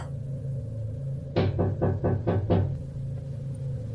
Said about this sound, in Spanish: Buenas noches, le dije mientras tocaba la puerta.